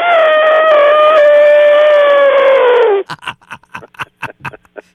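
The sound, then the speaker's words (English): A person's voice imitates an elephant's trumpeting call, holding one loud, nasal blast for about three seconds as the pitch sags, then breaks into a run of short laughs. “Does it want to mate when it hears you do that?”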